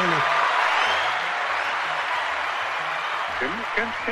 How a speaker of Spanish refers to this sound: ahí está el maestro …. Un aplauso para